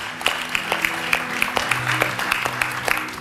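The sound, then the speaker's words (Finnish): After a prayer, a crowd applauds God steadily, a dense wash of many hands clapping with a few sharper individual claps standing out at a roughly regular pace, and a low hum underneath. “Annetaan Jumalalle isot aplodit.”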